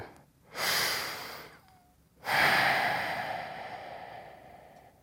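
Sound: deep breathing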